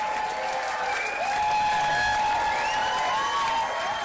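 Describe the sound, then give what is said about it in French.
A crowd cheers and applauds steadily and loudly for about four seconds, a dense wash of clapping with shrill whistles and cries rising and falling above it. “Alors quand je dis cette phrase, je m'imagine tout une foule en délire”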